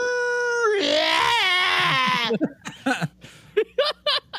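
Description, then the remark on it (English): A voice mimics a howl, holding a steady tone before breaking into a strained, wavering high scream for over a second, then a few quick bursts of talking follow. “oh, they said that his howl ends with a weird scream too.”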